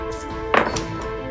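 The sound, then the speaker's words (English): Sneak attack dice tumble across a table, a sharp clatter followed by a couple of lighter taps, over a steady low background hum with no talking. “Oh, that was a good roll.”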